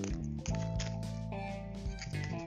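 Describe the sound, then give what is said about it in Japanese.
Crinkly plastic rustling and a few quick ripping bursts as a resealable zipper bag holding 3 g of a spice from Taiwan, processed by GABAN, is pulled open, fairly quiet, over a steady low tonal hum. “チャック付きのですねビニールの、えー、よくあるものに入っています”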